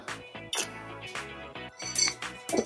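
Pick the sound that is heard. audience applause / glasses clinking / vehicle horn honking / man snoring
glasses clinking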